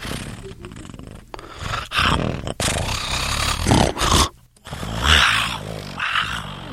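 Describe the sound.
A person imitates lions roaring in the African savanna with a series of loud, raspy, growling bursts, separated by brief pauses over several seconds.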